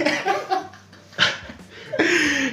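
A drawn-out yawn with a breathy, falling voiced tone, preceded by a few short huffs of breath and a sharp exhale.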